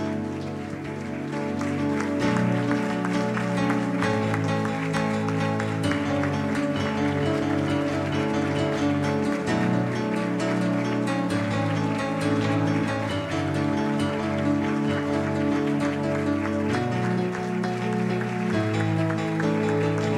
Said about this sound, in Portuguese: Dê um aplauso bem forte ao Rei da Glória. Aleluia.